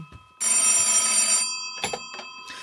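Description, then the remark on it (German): A loud telephone bell rings in a bicycle shop in one sustained burst of about a second, a bright metallic jangle, followed by brief rustling and faint handling sounds. “Fahrradrauber, Telefon.”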